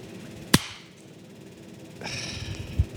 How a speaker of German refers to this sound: Jetzt habe ich, glaube ich, ein bisschen zuerst geklatscht. He? Nein, also auf meinem Ding hast du drei Sekunden später geklatscht.